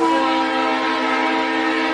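A train sounds loud, its steady, droning horn-like tone holding unbroken for about two seconds before cutting off, with no voices present.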